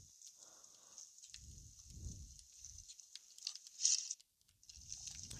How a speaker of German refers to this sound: Ich hasse es, wenn es regnet. Ich glaube, das tut auch jeder.